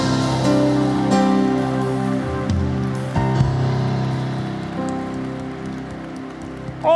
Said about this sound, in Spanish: Oh, gloria, gloria, apláudele fuerte al Rey.